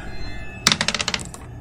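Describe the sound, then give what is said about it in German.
A white die is rolled, clattering across a hard surface, a quick burst of sharp clicks that bounce closer together and fade within under a second, with no talking. “Das ist ich soll würfeln.”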